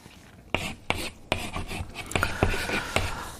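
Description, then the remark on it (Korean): A sound effect of chalk writing on a blackboard, played on a radio show: a series of sharp taps and short scratchy strokes, about seven distinct hits at uneven intervals with raspy scraping between them, moderately loud and with no voices. “칠판에 분필로 글씨 쓰는 소리입니다.”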